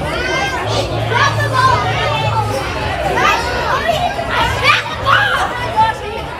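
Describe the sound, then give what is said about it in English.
Loud, dense crowd chatter fills a busy brewery, overlapping voices and high children's shouts rising above a steady low hum, constant and noisy throughout. “Well, it sounds like a playground or a bouncy house or something like that. Right. It was a brewery.”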